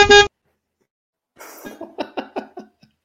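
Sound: horn honking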